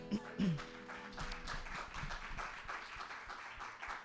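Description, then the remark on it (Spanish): A crowd bursts into sustained applause for the Lord, many hands clapping in a dense, steady patter for several seconds, with a few brief voiced sounds at the start. “¿Cuántos pueden dar un fuerte aplauso al Señor?”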